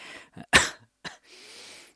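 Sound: coughing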